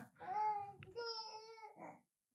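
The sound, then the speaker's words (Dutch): A baby boy babbles in two drawn-out, sing-song vocal bursts with a brief pause between them, fairly clear, ending in silence. “Alsof hij me begrijpt.”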